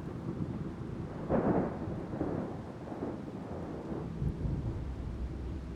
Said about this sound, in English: In the distance, you see dark clouds closing in as the sky grows a little darker you see that a small storm is forming and you begin to feel some raindrops falling down.